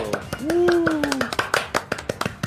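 Brief applause from a small group welcoming a guest on the show Nerdo de Costa a Costa: sharp, irregular claps lasting a couple of seconds, with a drawn-out vocal whoop over the first half.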